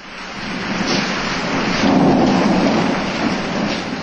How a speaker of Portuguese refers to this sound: Mas, para a aflição de todos, a tempestade aumentava cada vez mais.